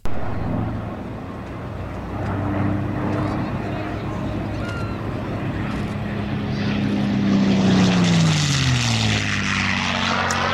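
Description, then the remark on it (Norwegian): An old British Spitfire military propeller fighter's engine drones steadily, then roars loudly as it passes overhead, its pitch dropping sharply as it flies away. “Du traff på Spitfire.”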